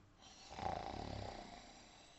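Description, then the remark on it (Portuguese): A voice imitates a single drawn-out snore of a grasshopper sleeping on a bicycle handlebar in a garage, a rattling, buzzy breath that swells and fades over about two seconds, fairly quiet with no other sounds. “A bicicleta ficou na garagem e qualquer um que chegasse perto do guidão só ia ouvir”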